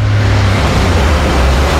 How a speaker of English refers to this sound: This is the sound of your mates being mates, and the sound of you driving to see them. A view easing off before a bend, and the narrowing in the lane. This is the sound of you respecting the road.